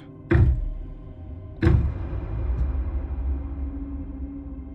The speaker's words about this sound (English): I think my mom's knocking on the front door right now.